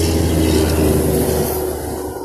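A large truck rumbles past on the road, its deep engine drone loud, with road noise that eases slightly as it moves away.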